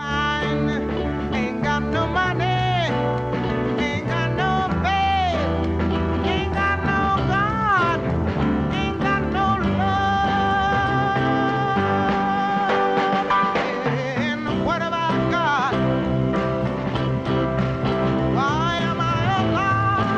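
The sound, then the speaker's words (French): A song with piano accompaniment and a woman singing expressive, sliding melodic lines, playing continuously at a steady, full volume from start to finish. “au piano et au micro”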